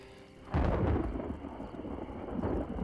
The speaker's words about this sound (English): heart sank when she heard thunder. It sounded dangerously close.